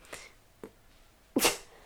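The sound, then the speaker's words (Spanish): A sharp sneeze bursts out loudly near the end, preceded by two quick, fainter intake-like sounds, with no talking. “Salud.”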